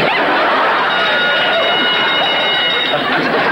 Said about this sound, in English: right, folks, that was the alarm. Now clear the lobby, go to your rooms, and the staff will be up there in a minute to teach you how to escape.